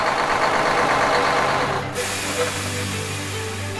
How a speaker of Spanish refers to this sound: Se trataba del camión de Bernardo, abollado y todo cubierto de barro.